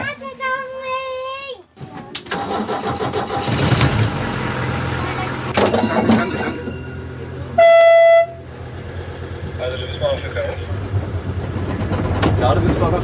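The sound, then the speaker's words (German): A yellowish-and-red railbus (Schienenbus) with a snout front and back and a top speed of about 60 km/h sounds a loud two-tone horn, then pulls away with a steady engine rumble and rattling; a second short horn blast cuts in midway, with faint voices underneath. “Also wir fahren jetzt mit dem Schienenbus, der aussieht wie ein Hund.”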